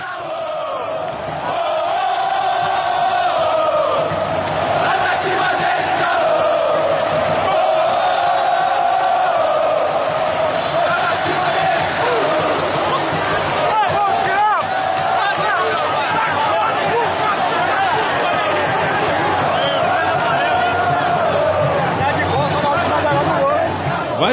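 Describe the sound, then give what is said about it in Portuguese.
A large crowd of Atlético Mineiro supporters chants 'Vai Pra Cima Deles, Galô' together in the stands, a chant used for the first attack of the game and to warm up the stands. It is a loud, continuous wall of massed voices with a steady melodic rhythm lasting throughout. “Próxima música, vamos ouvir o áudio de Vai Pra Cima Deles, Galô.”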